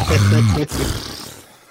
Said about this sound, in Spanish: cómo como ronca, güey. Se ve muy bonita, pero ah, como de roncar.